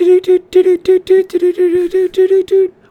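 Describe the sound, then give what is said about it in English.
A single voice imitates a Morse code news jingle, meant to sound like Morse code coming in off a telegraph at the start of a news report, chirping a fast, rhythmic run of short, steady-pitched beeps with brief gaps, fairly loud for about three seconds. “I, guess, I think it's supposed to sound like like Morse code coming in off the telegraph.”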